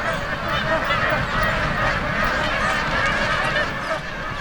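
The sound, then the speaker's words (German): A dense flock of waterbirds that nest together in colonies chattering and honking together on a lake, a continuous overlapping babble of calls at steady loudness, with no pauses. “Und dann, wenn das vorbei ist, das ganze Kindergedöns, dann sind sie auf Seen zusammen unterwegs und schnattern sich eins.”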